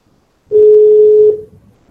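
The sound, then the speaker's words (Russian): A single loud, steady telephone tone, like a keypad dialing beep, sounds for just under a second as a call to the company Softline is placed, then cuts off into near silence with no voices. “Все отлично, давайте позвоним в Softline.”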